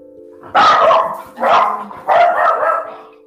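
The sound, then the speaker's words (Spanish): A small female dog barks three times in quick succession, loud, with sharp yappy bursts over a faint steady background hum and no talking. “Mi perrita aquí”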